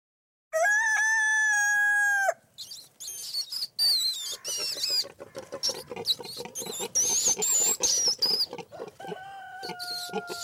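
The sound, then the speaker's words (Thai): A rooster lets out one loud crow, followed by a busy stretch of squeaks, grunts and chatter from a pig and a mouse, then a shorter drawn-out call at the end. “มีเสียงอะไรบ้างเอ่ย ไก่อ่าหมูอ่าใช่เลย แล้วก็มีอะไรอีกชนิดหนึ่งนะ หนู นั่นเองครับ”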